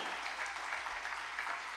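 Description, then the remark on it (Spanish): A crowd claps steadily to give glory to God in a morning service, a dense, continuous patter of many hands with no pauses, filling the whole moment at an even, moderate level. “Y usted tiene, si va a aplaudir, denle un aplauso, alguien denle gloria a Dios en esta mañana.”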